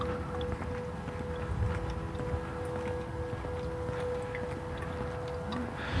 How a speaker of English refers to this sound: just sort of walking along, listening to all the, the various sounds. Somebody's got a leaf blower going.